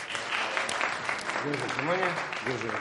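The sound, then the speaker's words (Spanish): A trained bear claps its paws during an exhibition at the queen's court: steady, rapid clapping like applause at moderate loudness, with voices speaking over it in the second half. “El oso aplaude.”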